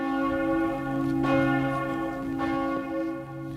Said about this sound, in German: Die Glocken der Pfarrkirche im Koblenzer Stadtteil Horchheim läuten zu Süsterhens Begräbnis.